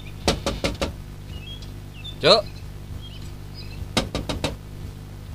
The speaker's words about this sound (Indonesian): Coba kau ketok kamarku, pasti tak ada yang membukakan.